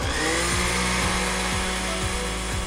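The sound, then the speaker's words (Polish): A hand blender runs steadily, puréeing strawberries in a bowl, with a loud, continuous motor whir and a buzzing hum that pulses faintly every half second or so, with no voices over it. “netko do šklie a mixa do ruki. Start a pirírujeme.”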